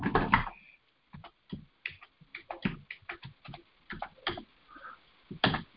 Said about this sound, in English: Hold on, let me type in your birthday real quick.